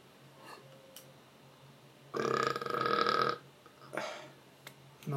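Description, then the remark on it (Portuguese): A long, loud burp rumbles for over a second, sustained and throaty, followed by a brief breathy sound and quiet background noise. “Que arroto gostoso.”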